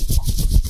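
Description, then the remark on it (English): A brief burst of scratchy fabric rustling, with rapid swishing pulses as a Halloween costume jacket being worn is rubbed or shifted. No one speaks. “baby driver jacket on that I'm probably oh, going to oh, have nice. to take, it, take off because it sounds like this.”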